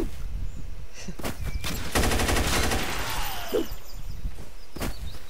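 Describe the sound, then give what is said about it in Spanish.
Video game gunfire from a 9mm Machine gun: a sustained burst of rapid automatic shots, sharp and loud, with a few isolated single shots before and after it, over a steady background rumble. “¿Escuchan el poder de mi arma?”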